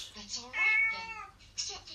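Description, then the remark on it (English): A cat in a box meows, a long, drawn-out wavering cry in the middle, framed by shorter, softer mews before and after, fairly clear against a quiet background. “He's in the box for hangman. What is it with cats?”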